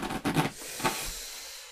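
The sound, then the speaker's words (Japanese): Rustling and scraping of styrofoam packing being pulled out of a cardboard box holding a newly bought roller, a few quick crinkly bursts in the first half-second and another short scrape, then fading to faint hiss. “発泡スチロールが出てきたぞ。”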